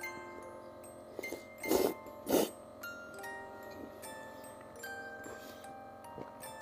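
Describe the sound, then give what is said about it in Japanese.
Eating sounds of someone chewing ramen noodles and crunchy menma (bamboo shoots), with two louder wet, crunchy bursts near the start and a few faint clicks in otherwise quiet surroundings, no talking. “咀嚼音結構入ってますかすいません今日の配信外れ回になってると思うんですけどやっぱね食べるっていいですね”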